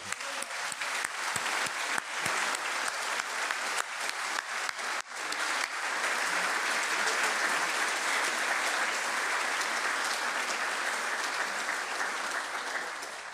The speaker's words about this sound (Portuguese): meus irmãos, vamos bater palmas para estas palavras de Pedro.